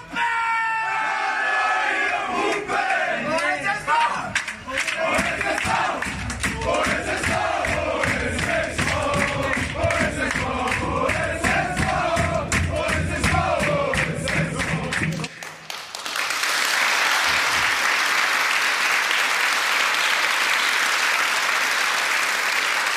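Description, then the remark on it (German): The Ulm football team celebrates loudly in the locker room after a match, with many voices chanting and singing together in rhythmic, harmonized shouts, rising into a burst of cheering and applause near the end. “Wir werfen mal einen Blick auf Bilder aus der Kabine und hören vor allen Dingen rein, um die Stimmung auszuloten.”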